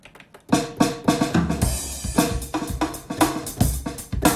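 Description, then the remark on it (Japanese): A finger-drummed beat played with the fingers on keyboard keys: steady, punchy drum hits with a low tonal layer, repeating in a quick, even groove, loud, with no talking. “そうピアノはねピアノだけ俺ね実はさ打ち込みとかパソコンでとかドラムとかも鍵盤叩くんですよ”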